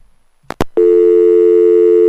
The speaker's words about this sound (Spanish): Bueno, me parece que se cayó la llamada telefónica en el momento más interesante de la conversación.